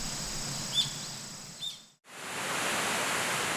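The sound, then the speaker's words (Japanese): Fukuroda Falls, one of Japan's three great waterfalls, in Daigo, Ibaraki, Japan, roars in a steady, dense rush, with a couple of brief bird chirps early on. After a short silent break, the roar returns, fuller and louder. “今朝は日本三名瀑が奏でるいい音茨城県大子町袋田の滝それではお聴きください”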